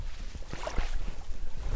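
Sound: lake water lapping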